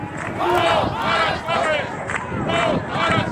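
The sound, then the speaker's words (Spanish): A protest crowd of around 140,000 people on Avenida de Anaga in Santa Cruz de Tenerife chants the slogan "Todos somos Vilaflor" in unison around the start of the new millennium, loud rhythmic phrases repeating roughly once a second, many voices blending into a dense, steady roar with no individual speaker standing out. “Todos somos Vilaflor es el grito con el que prácticamente abríamos el nuevo milenio, una de las manifestaciones más multitudinarias.”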